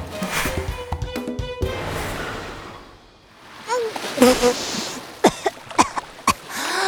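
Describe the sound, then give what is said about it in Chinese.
A goose dives into the water with a heavy splash, then churning, bubbling water and a series of quick, sharp paddling splashes from its red feet in an uneven rhythm toward the end as it swims to rescue a chick. “她在远处看见小鸡墩墩落水，便一头扎进水里，红色的脚掌猛划两下，像箭一样冲了过来。”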